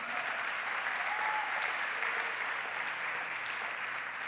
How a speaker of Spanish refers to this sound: Dale un aplauso al Señor, amén.